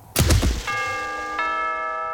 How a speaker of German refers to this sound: Wo ich am Abend beim anderen an der Tür läute, macht so ein grosser Typ auf.